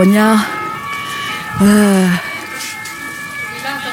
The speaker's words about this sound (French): Nous sommes en train de ressortir de l'église Saint-Eustache avec tout de suite une euh, sirène de police qui nous cueille.